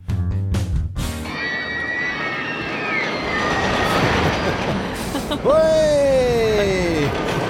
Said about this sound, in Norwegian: Får sug i magen bare å høre lyden. Ja, virkelig. Det er jo lyden av litt berg-og-dal-bane.